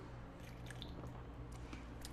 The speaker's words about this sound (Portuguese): Ah, deixa eu tomar, tomar uma água.